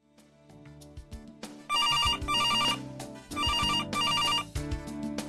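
A telephone ringing tone, heard while placing a call to a close friend, plays in two long bursts, each a rapid warbling trill, with a short pause between them and brief beeping tones before; no one speaks.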